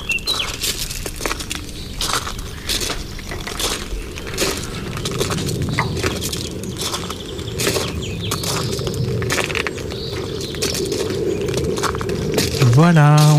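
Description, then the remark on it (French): An open-air soundscape in the Bois Heureux meadow with scattered bird chirps over a steady rustling, busy background. The birds are mixed into the ambience, with murmuring voices faintly present. “On est aujourd'hui dans la prairie du Bois Heureux pour la sieste plein champ du jour”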